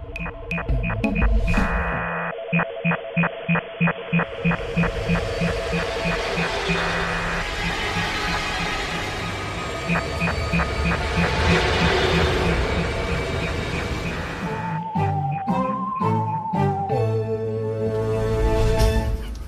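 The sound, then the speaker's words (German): The electronic intro jingle of the show Alarmstufe X plays alone, opening with rapid rhythmic pulsing chords, swelling into a sustained, brighter middle section, then ending on a stepped run of melodic synth notes. “Äh, wir jingeln.”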